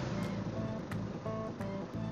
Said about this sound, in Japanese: ちょっと様子というか、まあ、あんまり良くないな。アイドリングは安定してるけど、どことなく非力な感じ